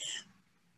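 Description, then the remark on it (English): A single sharp, loud sneeze, bursting out with a hissing rush of air before fading quickly into near silence. “So I'm sneezing on the truth.”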